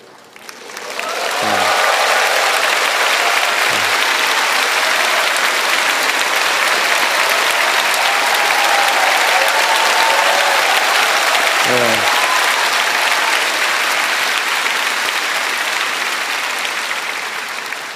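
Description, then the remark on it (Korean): A large audience breaks into sustained applause as the young adult and college group leaders stand up when asked, a dense wash of clapping that swells within the first couple of seconds and holds steady, with a few brief voices rising through it. “그냥 일어만 나라고 했고 박수는 치라고 말씀 안 드렸는데 잠깐만 자리에서 잠깐만 일어나 주시겠어요?”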